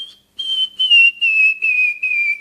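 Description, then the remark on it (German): A handmade bird-call whistle imitating birdsong, made from tree bark, seeds or stalks by Spanish birdsong imitators: a high, clear piping tone blown in a string of short bursts, gliding gradually lower, fairly loud with no voices. “Na gut, immerhin werden die von den spanischen Vogelstimmen-Nachmachern aus Baumrinden, Kernen oder Halmen selbst gebaut.”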